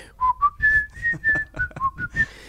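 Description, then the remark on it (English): Someone whistles a bouncy film theme tune, a quick run of bright, clear notes hopping between pitches with short breathy gaps, loud and alone with no talking. “And our theme song, our fabulous theme song.”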